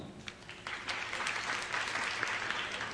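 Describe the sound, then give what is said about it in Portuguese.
An audience claps steadily in a dense, continuous wash of applause that swells after the first half-second and holds at a fairly loud level throughout, with no voices standing out. “Vocês estão batendo palmas para quem?”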